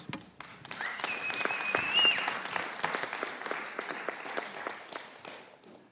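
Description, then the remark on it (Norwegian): A church audience applauds the worship team that led the singing: dense steady clapping from many hands filling the room for several seconds, with a few faint cheers or whistles rising briefly near the start before the applause tapers slightly. “De kan få en applaus.”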